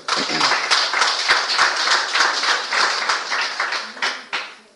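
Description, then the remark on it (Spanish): A crowd breaks into sustained applause as an offering of praise to God, dense overlapping claps forming a steady crackling wash that holds for several seconds before tapering off, with a few voices murmuring underneath. “Ofrenda de palmas para Él.”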